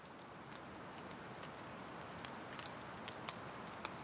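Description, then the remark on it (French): Steady rain falls in a continuous soft hiss, with scattered sharper drops tapping on a surface now and then. The sound is fairly quiet and even, with no voices. “C'était une journée pluvieuse avec de gros nuages dans le ciel.”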